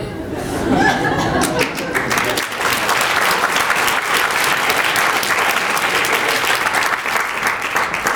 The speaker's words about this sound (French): Je vous demande s'il vous plaît de faire un tonnerre d'applaudissements pour la Benson. s'il vous plaît.